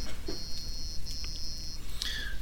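A high, steady electronic quiz-game buzzer tone sounds in two long stretches, followed by a brief chirpy beep, fairly loud over a low background hum with no talking.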